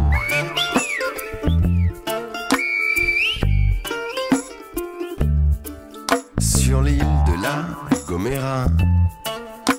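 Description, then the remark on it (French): Sharp whistled tones of El Silbo, a whistled language, glide up and down in short phrases, echoing between two mountains as a Guanche whistles to invite himself to dinner, layered over a dense, busy backdrop of other sounds. “on entend El Silbo en écho.”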